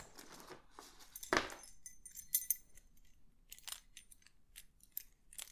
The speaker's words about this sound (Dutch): Ga ik even de deur op slot doen.